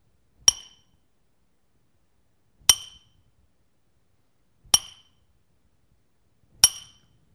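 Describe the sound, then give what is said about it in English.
Four sharp metallic hammer blows ring out on a nail, evenly spaced about two seconds apart, each a bright clink with a brief ringing decay against silence. “It wasn't just a single blow of the hammer on the nail, it was a lot of them.”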